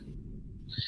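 A seagull calls out in the background, a brief harsh cry rising near the end of the short moment, set against a low steady rumble.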